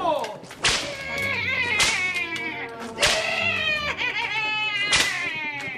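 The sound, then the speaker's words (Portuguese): The rider leading a horse race whips the horse to make it go faster: four sharp, loud cracks at uneven intervals, each a quick snapping burst over a steady, busy tonal background of sustained pitched sounds. “Sem dar-se conta do perigo, o jovem Romão Albuquerque lidera a prova e covardemente chicoteia o pobre cavalo para ganhar ainda mais velocidade.”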